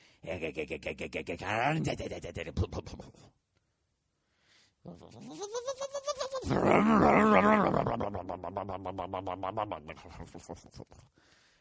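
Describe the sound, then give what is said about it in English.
A man vocally imitates his truck, Big Boy, warming up: a sputtering, pulsing rumble, a brief pause, then a rising rev that settles into a loud, sustained buzzing drone. “the sound of my truck warming up. Then it stalls.”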